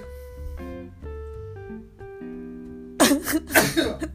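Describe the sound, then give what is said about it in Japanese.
A short run of steady, stepping musical tones gives way to a loud sneeze, a sharp breathy burst followed quickly by a second harsh explosion of air near the end. “なんでくしゃみする時天を仰ぐの”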